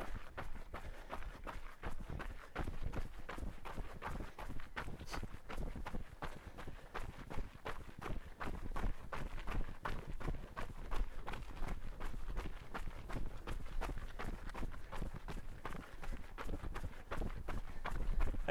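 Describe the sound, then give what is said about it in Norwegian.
Quick, steady footfalls pound along at a brisk running pace, a dense, even rhythm of strikes that continues without a break for the whole stretch. “Nå hører jeg at det går fortsatt litt fort”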